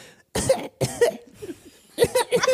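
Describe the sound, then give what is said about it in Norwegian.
A voice imitates coughing from inside a cave: a few rough, voiced hacks in quick succession, a short quiet gap, then another burst of coughs. It is fairly loud, with no other sounds. “Etter hvert sånn Slutter hostinga.”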